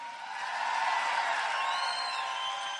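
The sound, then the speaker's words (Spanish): An audience gives a shout of glory during a church sermon, shouting and cheering together in a sustained, noisy roar that holds steady for a few seconds, with scattered whoops rising above the crowd. “Alguien dio un grito de gloria.”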